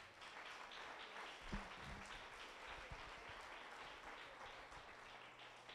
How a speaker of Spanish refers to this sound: un aplauso a Dios.